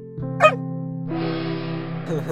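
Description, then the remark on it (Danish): A dog jumps up and gives one short, sharp bark over a steady low hum, followed by a broad hissing rustle that continues to the end. “Hunden sprang op og gøede, og det var som om hunden prøvede at fortælle storebroren noget.”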